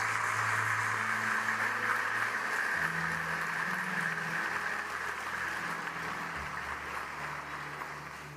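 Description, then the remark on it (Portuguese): Steady applause for the Lord from a crowd fills all eight seconds, dense and even in loudness, with low sustained keyboard chords shifting underneath. No one speaks. “Você pode dar um aplauso ao Senhor nesta hora?”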